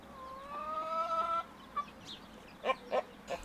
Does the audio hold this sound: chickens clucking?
yes